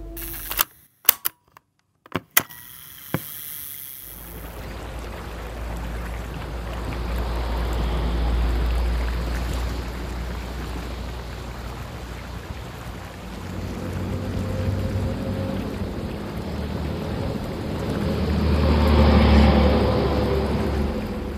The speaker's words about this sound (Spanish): Ahora estoy en 2011, a orilla del río Suquía, enfrente de la cañada, en pleno centro de la ciudad.